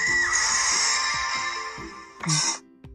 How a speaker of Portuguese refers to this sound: Do nada, Vem isso, vem esse, esse grito, esse anúncio, esse negócio no meio do, da sua experiência. Você ouve esses sons assim, fala, que merda é essa, mano? Que bosta é essa? E é sempre essa música de elevador com gritos aleatórios.